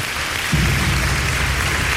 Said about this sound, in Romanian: Încă o dată aplauze